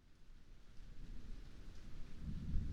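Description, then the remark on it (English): Heavy rain pours steadily while a deep rumble of thunder builds underneath, swelling louder toward the end. No voices, just the storm. “The heaviness in the air turned into raindrops, and the raindrops pounded the windows and the roof of her home.”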